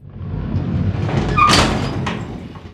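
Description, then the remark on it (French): A metal shutter being raised: a steady rattling, rumbling roll that swells louder toward the middle with a couple of brief squeaks, then a final clatter as it tops out. No voices. “Quelqu'un toque sur le volet métallique et celui-ci est relevé.”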